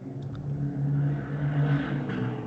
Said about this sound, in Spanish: A la madre, ¿qué anda poquito eh, pasó una moto por aquí.